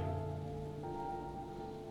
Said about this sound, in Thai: ท่ามกลางสายฝนที่ตกลงมากระหน่ำมาแรงกว่าเดิม